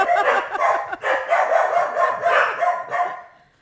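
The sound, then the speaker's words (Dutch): Several dogs bark continuously in a rapid, overlapping chorus, loud, with sharp yappy barks repeating without pause before trailing off at the end, as someone arrives unannounced. “Eh, voor, voor, de luisteraar, de honden zijn eh, ook aanwezig, dat lijkt me duidelijk.”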